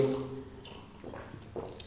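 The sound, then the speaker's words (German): A short sip of water: a few soft wet slurps and a gulp follow a brief voiced sound at the start, quiet with no other background. “In diesem Sinne. Prost.”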